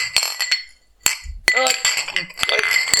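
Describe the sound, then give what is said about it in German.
Several bright glass clinks ring out in quick, irregular succession, sharp high tones with short shimmering decay, a toast of touching glasses with some murmured voices underneath. “Also zum Wohle, oder? Einmal muss man es ja hören.”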